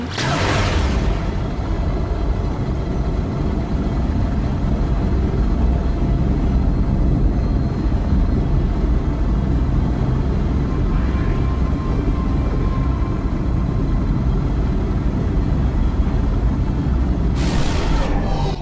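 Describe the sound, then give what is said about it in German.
A video game spaceship engine roars steadily at high boost in impulse mode, boosted with the A button, a loud, dense low rumble that holds throughout, with sharp whooshing bursts at the very start and again near the end. “Und genau, mit den beiden Bumper-Tasten wechsle ich dann noch in den Impulsmodus. Da wird es dann richtig schnell richtig gedrückt halten.”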